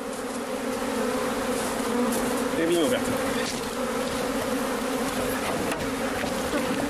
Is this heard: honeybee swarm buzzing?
yes